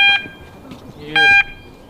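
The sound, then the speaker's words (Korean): A loud electronic danger warning alarm at a backdraft fire training facility of the Gyeonggi-do Fire Service Academy, South Korea, signalling that a backdraft is in operation and an explosion is possible, sounds in two short, piercing tonal bursts about a second apart, with a low murmur of background noise between them. “지금 백드래프트가 작동 중이니까 어, 요 근방에는 안전장구를 차고는 이제 진입하지 말라. 그리고 폭발할 수도 있다. 이런 위험 경고 신호입니다.”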